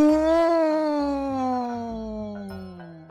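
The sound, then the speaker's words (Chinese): A voice imitates a monster's howl: one long, loud, drawn-out 'awoo' that starts high and slowly slides lower over about three seconds, with a soft rhythmic thumping underneath. “怪兽们一起在嚎叫着，嗷！”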